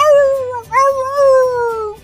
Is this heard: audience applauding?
no